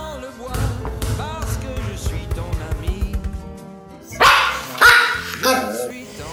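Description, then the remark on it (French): A dog named Nogat lets out a few loud, sharp barks near the end while playing with a ball, following a stretch of softer yips and whiny vocalizing with a voice faintly in the mix. “Tu es bon toutou, Nogat.”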